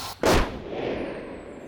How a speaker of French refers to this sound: Ce coup de feu tiré par Jean Chastel met définitivement fin aux attaques dans le Gévaudan.